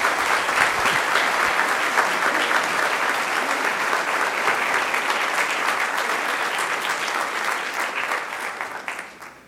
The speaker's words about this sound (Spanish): Le damos un aplauso a estos muchachos.